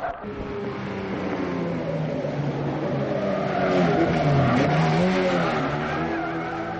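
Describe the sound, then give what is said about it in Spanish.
A car engine revs hard and steadily as the vehicle speeds along on a timed drive of 50 blocks, its pitch rising and falling with acceleration, loud throughout with no voices. “Ah, así que mejor déjame bajarme del coche.”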